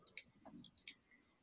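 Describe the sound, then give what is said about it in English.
A quick run of light keyboard typing, entering the beer name Dirty Bastard: about half a dozen sharp, uneven keystroke clicks over a second and a half, quiet, with no voices. “so I'm sorry, I'm typing in dirty, dirty bastard.”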